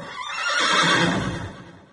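A restless white horse in the courtyard of a house at night, under a thin moon, whinnies once in a single drawn-out call nearly two seconds long, rising and then tapering off, loud, with no voices present.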